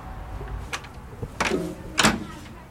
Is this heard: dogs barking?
no